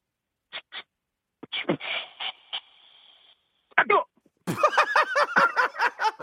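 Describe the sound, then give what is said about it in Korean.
A voice imitates a butane gas torch being lit and leaking gas: a few short puffs, then a thin, steady hiss for about a second, followed by excited voices and laughter. “안 아, 뜨겁고 이거 이거 새는 소리 좋았어요.”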